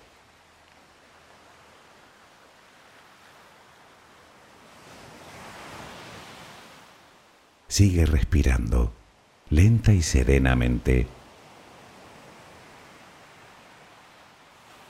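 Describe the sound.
Soft, steady ocean surf washes along a coast, with one gentle wave swell rising and fading before a calm voice speaks briefly over the continuing hiss of the water.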